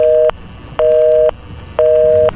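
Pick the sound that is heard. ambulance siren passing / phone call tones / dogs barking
phone call tones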